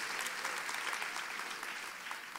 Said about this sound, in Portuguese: Se você está recebendo, dá uma salva de palmas ao Senhor.